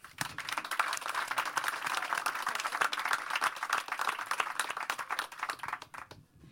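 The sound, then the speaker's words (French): An audience applauds to welcome two guests at the opening of an evening conversation on the theme Paris-Beirut. Dense overlapping handclaps form a steady, crackling wash that holds for several seconds before tapering off at the end. No voices are heard. “Et je pense qu'on peut les applaudir pour leur souhaiter la bienvenue.”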